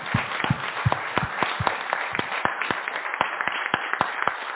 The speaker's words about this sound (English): Thank you so much. Can we give our panelists another round of applause?